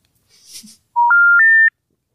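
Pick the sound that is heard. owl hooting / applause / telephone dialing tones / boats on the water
telephone dialing tones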